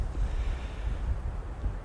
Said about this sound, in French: Alors si vous entendez du, du bruit de fond, il s'agit de bah, la forêt. Là, je suis adossé à un arbre. Il y a encore du soleil. Euh, et puis je suis au milieu d'une forêt de pins qui est secouée par du vent. Et c'est chouette, ça fait.